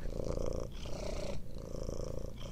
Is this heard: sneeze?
no